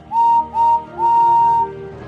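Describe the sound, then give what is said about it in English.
The whistle of Henry, the green number three tender engine on the Fat Controller's railway, sounds three loud, clear blasts: two short toots followed by one longer held blast, with no talking. “Henry is the number three engine on the Fat Controller's railway and has a whistle that sounds like this.”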